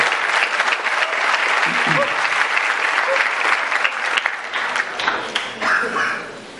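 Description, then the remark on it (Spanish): A crowd applauds the speaker's mother steadily for several seconds, dense clapping filling the whole stretch at a fairly loud, even level before easing slightly near the end. “Un aplauso para mi mamá, que fue la que hizo la mitad del emprendimiento.”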